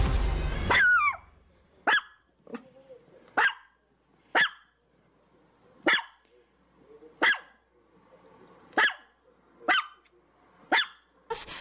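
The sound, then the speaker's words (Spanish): A small female Chihuahua barks repeatedly: about ten sharp, high-pitched yaps at a steady pace, each one loud against a quiet background. “Así es que le puso una nota a su perrita chihuahua en el collar”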